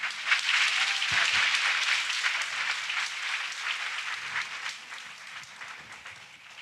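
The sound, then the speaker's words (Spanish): A church audience claps together for the Lord in sustained, dense applause, a steady crackle of many hands that holds for several seconds and gradually softens toward the end. “Y démosle un aplauso al Señor por eso.”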